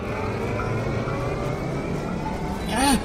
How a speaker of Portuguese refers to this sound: e aos poucos cada tripulante vai liberando o caminho daquele raio prateado e vocês todos ouvem aquele som tranquilo dos motores religando.